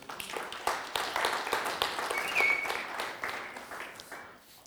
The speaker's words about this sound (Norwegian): Er ikke det bra? Skal vi gi en applaus?